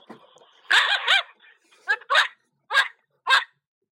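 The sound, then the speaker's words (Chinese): Someone imitates a dog barking: a quick double woof, then several more sharp, yelping barks spaced out with short pauses, loud and voice-like with a rising-falling pitch on each. “学狗叫干嘛呀？”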